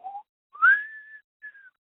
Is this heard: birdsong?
no